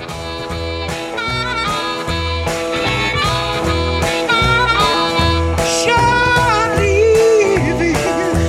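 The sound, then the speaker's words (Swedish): A live recording from a band's very first concert: the band plays loudly with a steady, driving drum beat, thick bass and a sung or guitar melody weaving on top, filling the whole stretch without pause. “Sveriges Radio P4 spelade faktiskt in just den här första konserten”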